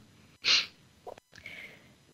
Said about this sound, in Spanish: Es mi Michi, que está plácidamente dormida junto a mí y sí, no la voy a, molestar para que se despierte y deje de roncar, porque a mí, espero que a ti tampoco, a mí me, encanta escuchar sus ronquidos y espero que a ti tampoco te incomoden.